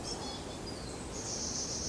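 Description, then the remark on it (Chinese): Many small birds chirp in the treetops in high, thin trills that blend into a continuous twittering, running steadily over a soft, constant hiss for the whole stretch, with no voices. “小鸟越飞越高，你就看到那个树梢，小鸟好多。”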